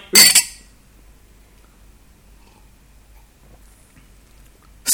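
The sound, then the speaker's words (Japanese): Three people clink drinking glasses of sake together in a toast: a quick bright cluster of ringing taps at the start, then near silence, and another sharp clink right at the end. Clear, with no talking. “そうだね、まあ、せっかく3人揃ってるし今回はちゃんとグラスを合わせて、はい、乾杯乾杯”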